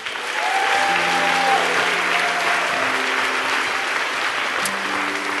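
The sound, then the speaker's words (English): A large audience claps steadily and loudly throughout for Pastor Gray after his word, a dense, sustained wash of applause, while soft held keyboard or organ notes play faintly underneath. “Um, just give him another hand, please.”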